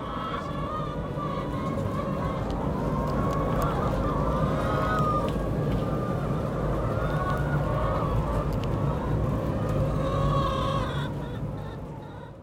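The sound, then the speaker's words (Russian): A large flock of hens croons and murmurs together in a steady, dense, song-like chorus inside a poultry hall where the hens run about, with no voices and no pauses from start to finish. “с курями примерно то же самое. Они, конечно, не мурчат, но они говорят, куруют каким то своеобразным способом очень.”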